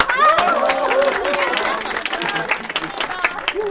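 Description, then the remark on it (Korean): A group bursts into steady applause marking the end of a week of new-employee training, dense overlapping claps running the whole time, with a few voices calling and cheering over the top at the start. “자, 드디어 일주일간의 신입사원 교육이 끝났습니다. 박수!”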